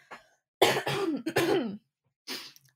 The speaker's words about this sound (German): Oh, kurz husten.